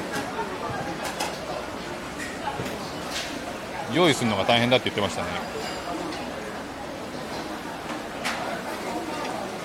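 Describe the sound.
Busy hawker centre food court ambience, an everyday people's eatery: a steady wash of overlapping crowd chatter fills the space, with one voice briefly rising above the hubbub midway through.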